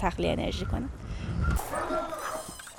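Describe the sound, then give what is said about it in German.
Several dogs bark and yip at an outdoor dog run outside Tehran, Iran, where they can run free, with short overlapping barks and a brief whimper, while people talk amid general background noise. “Deshalb haben wir diesen Platz aufgebaut, damit sie frei laufen können.”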